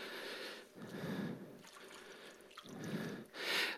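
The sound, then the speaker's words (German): Crinkling of plastic foil as a sponge, wetted with a little water on the outside but dry inside, is unwrapped, with soft squelchy, dripping sounds in several bursts and no voices. “könntest den Schwamm erlösen und mal vorführen, wie sich das an, wie das aussieht.”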